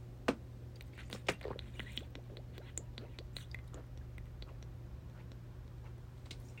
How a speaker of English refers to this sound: I'm gonna take a sip out of my water, my big brown water jug that I take everywhere